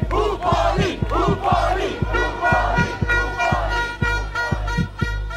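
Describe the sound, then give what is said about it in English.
A protest crowd in the streets of Nicaragua, waving the Nicaraguan flag, shouts slogans dating back to the revolutionary period in unison over a steady, regular drumbeat, the chanting loud and rhythmic with repeated cadences rising and falling throughout. “You just see people out in the streets waving the Nicaraguan flag, shouting slogans that date back to the revolutionary period, singing songs.”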